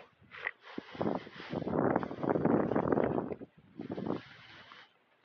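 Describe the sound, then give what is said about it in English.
Gusty wind blows outdoors on a freezing cold, cloudy night under a full moon, a rushing roar that swells and dips over several seconds, with brief lulls between stronger buffets and no voices. “Full moon, cloudy, and windy.”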